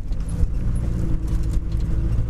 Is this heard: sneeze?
no